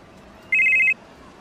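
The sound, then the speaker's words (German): A mobile phone rings with a short, bright electronic trill lasting under half a second as an unknown number calls, clear against faint background noise. “Unbekannte Nummer.”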